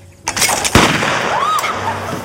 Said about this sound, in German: auf dem Land Tontauben schießen.